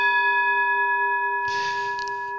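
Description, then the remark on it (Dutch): A gong, struck to signal the end of a conversation, rings out with a steady, sustained metallic tone that hums on for a couple of seconds, while a brief rustling noise passes partway through. No one speaks. “Voilà, als de gong gaat, dan is het gesprek voorbij.”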